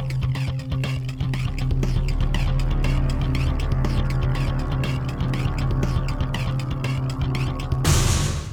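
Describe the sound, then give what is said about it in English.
A heavy door, recorded in a shop, rumbles and clanks as it moves, with a steady low drone and a rapid series of metallic knocks, ending in a loud burst as it shuts. No one speaks. “that door was heavy right? no, we recorded that in our shop like 10 years ago when I first started the podcast.”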